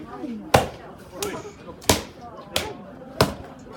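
A wooden mallet pounds sticky rice cake dough at a mochitsuki event held by Network Nagata on 23 December 2023, with four heavy thuds at uneven intervals, plus a softer knock between them, while voices murmur faintly in the background.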